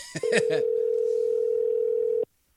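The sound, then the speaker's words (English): A telephone dial tone hums steadily for about two seconds as a call is placed, a flat, unbroken mid-pitched drone that cuts off abruptly. A brief voice sound comes just before it. “We're gonna we're gonna do a little phone call.”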